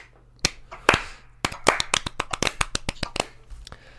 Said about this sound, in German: Da kann man auch nochmal einen kleinen Applaus spenden.